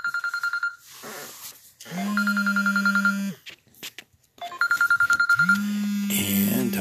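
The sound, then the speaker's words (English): A telephone rings with an incoming call in repeated trilling bursts, about three rings with short pauses between, fairly loud, accompanied by a low steady hum and some faint murmuring between rings. “I have a ringer coming in on an incoming phone, and I don't want to knock it off because if I do, I think it's going to jerk up my whole my whole uh, transmission right here.”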